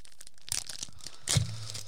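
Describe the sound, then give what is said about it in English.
The crinkly foil wrapper of a 2011 NRL rugby league Select Champions trading card pack is torn open in two quick bursts, a short rip followed by a louder, fuller tear with crackling, all without any talking. “Uh, let's open them up, see how we go.”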